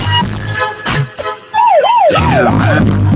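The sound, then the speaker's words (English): A police siren starts up partway through and wails loudly in rapid rising and falling sweeps over a low rumbling background noise. “Shit, oh shit, fucking cops, what are you doing?”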